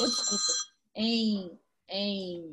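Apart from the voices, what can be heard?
telephone ringing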